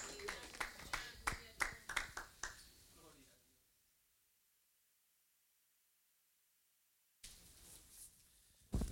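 A church audience breaks into brisk, scattered clapping for children who acted out scenes from the life of Jesus, fading out after a few seconds, leaving near silence before another burst of noise returns at the end.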